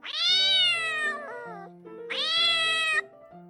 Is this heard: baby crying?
no